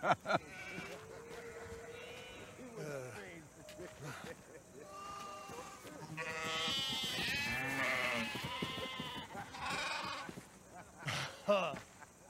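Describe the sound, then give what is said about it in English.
Sheep bleat repeatedly, several wavering, drawn-out cries overlapping one another, moderately loud, with the longest and loudest calls coming midway through. “Stay with the sheep.”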